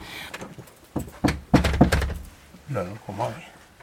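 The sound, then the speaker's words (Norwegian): A series of firm knocks on the door of a house at a children's home near midnight, by the night watchman: about five sharp thuds in quick succession, fairly loud, with indistinct voices murmuring around them. “da det nærmer seg midnatt, så banker det på døra eh, på det, i det ene huset,”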